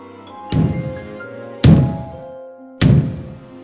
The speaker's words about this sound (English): Suddenly, Jack heard a loud noise thump, thump, thump.